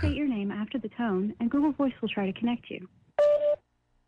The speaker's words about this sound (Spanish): Ok, ahí está la llamada. Dice que dejes el mensaje después ¿por qué te mandará como una contestadora y después timbra?